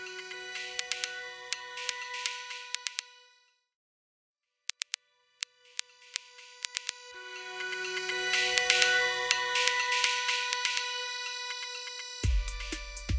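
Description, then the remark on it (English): Crisp, high hi-hat ticks tap out SOS in Morse code over tonal electronic music, drop out briefly to silence, return as sparse hits, then build back densely before a deep bass thump at the end. “The hi hats are actually Morse code, and it's SOS.”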